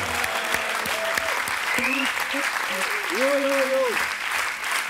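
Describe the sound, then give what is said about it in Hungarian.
Sustained applause from a large crowd praising the Lord, a dense steady wash of clapping with cheering voices and whoops rising over it throughout. “Adjunk az útnak egy nagy, nagy, nagy, nagy, nagy tapsot.”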